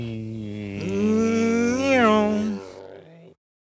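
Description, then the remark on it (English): A person vocally imitates an airplane flying low over the head: a sustained, buzzy hum that swells and rises in pitch midway, then fades off over about three seconds, fairly loud. “That was so, kind of a good anyway, plane noise, wasn't it?”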